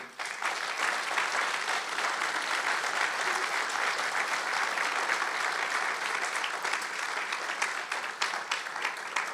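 An audience applauds Jesus during a sermon, a dense wash of many hands clapping at an even, sustained loudness for the whole stretch, with no voices standing out.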